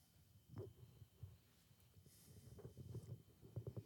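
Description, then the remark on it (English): A person's stomach growls with low, bubbly gurgles and rumbles in irregular bursts, quiet, with no voices over it. “Y'all hear my stomach growling over here.”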